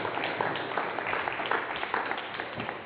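Audience applause for a band at a worship service: a steady, dense wash of many hands clapping at once, sustained at an even moderate loudness for the full few seconds, with no voices rising above it.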